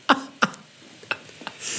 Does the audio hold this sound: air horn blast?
no